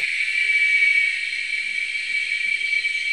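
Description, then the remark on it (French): A dense chorus of seven cicada species, recorded in Veracruz state, Mexico, layered together, makes a steady, shrill, unbroken buzzing that fills the whole stretch at an even, fairly loud level, with no voices. “Alors c'est un cœur euh, de sept espèces de cigales enregistrées au Mexique, dans l'état de Veracruz.”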